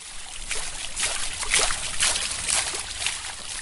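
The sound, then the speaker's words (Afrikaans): Steady trickling and splashing water from bubbling marble fountains runs continuously with soft irregular surges and no voices over it, at a house that looks like a French chateau in the wealthy suburb of Sandhurst, South Africa. “Kerry beskou hier die plek van borrelende fonteine van marmer, antieke meubels en kroonkandelaare van kristal as die perfekte omgewing vir haar unieke sakeonderneming”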